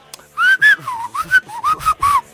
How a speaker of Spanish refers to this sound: Bueno, este, la gente que sí sepa qué significa ese chiflido, escríbanos